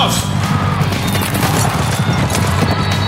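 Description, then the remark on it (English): Galloping racehorses thunder out of the starting gate, a loud, dense rumble of many hooves pounding continuously, heavy, with no voices. “The horses are at the gate.”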